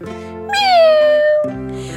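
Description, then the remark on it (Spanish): A single drawn-out cat meow, rising then slowly falling in pitch, lasting about a second, heard clearly over steady background music. “¡Miau!”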